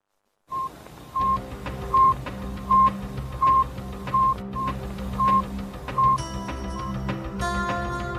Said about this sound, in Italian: Suona ancora nelle orecchie il bip bip dello Sputnik 1, che in quel giorno d'ottobre del 1957 arriva dallo spazio